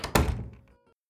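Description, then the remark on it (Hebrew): A soft door thud: a quick light hit followed at once by a heavier knock-like thump, then a brief hollow ring that fades within about half a second. The sound is knocking on the door of a house, then a door being shut softly. “אבל פתאום שמעתי כמה דפיקות על הדלת, חריקת צירים, לחשושים שקטים, ואז טריקת דלת רכה.”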